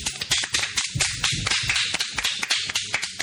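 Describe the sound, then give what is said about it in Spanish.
A short burst of applause from a small group as someone enters, quick sharp claps overlapping in a busy, steady patter, fairly loud, with no voices over it. “Unos aplausos.”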